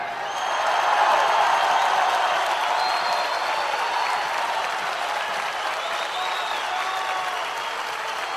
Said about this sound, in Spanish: En alto el aplauso, el decidor del pueblo, el cantor sobre el escenario, reconfirmando su consagración en esta misma plaza hace un par de años.